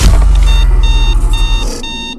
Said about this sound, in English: It's morning, 40 years later. You sit up and turn off your alarm.